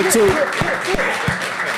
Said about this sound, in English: Can we can, can we get a round of applause yeah. for that?